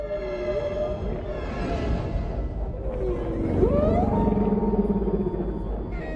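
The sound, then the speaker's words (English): Long, moaning whale song calls with rising and falling tonal sweeps over a deep, steady rumble, continuous and fairly loud, with no voices. “But space whales.”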